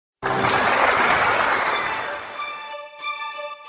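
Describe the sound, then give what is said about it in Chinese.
Audience applause welcoming the coach of the archery team of Zhuoxi Elementary School in Hualien bursts in suddenly, a dense steady roar of clapping that gradually thins and fades, while a few sustained musical tones emerge underneath toward the end. “我们掌声欢迎。”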